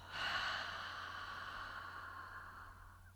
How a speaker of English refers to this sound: Ready? Three quick sniffs and a long exhale.